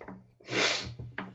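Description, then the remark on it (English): A single loud sneeze bursts out after a short intake of breath, followed by a brief sniffly exhale and a small vocal sound. “allergy portion of the show here.”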